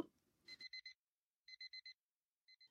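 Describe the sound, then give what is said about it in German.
An alarm clock beeps in rapid bursts of four short electronic tones, repeating with brief pauses between groups; loud, with no talking. “Aber er hört den Wecker nicht.”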